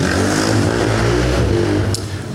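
A motorcycle engine revs loudly and steadily, its deep throbbing drone holding for a couple of seconds before easing slightly at the end.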